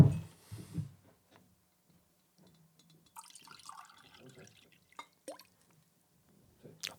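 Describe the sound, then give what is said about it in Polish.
Water trickles and splashes into a glass in a studio for a second or so, fairly quiet, followed by a few sharp clinks and taps as the glass is handled. “Mogę cię trochę wody poprosić?”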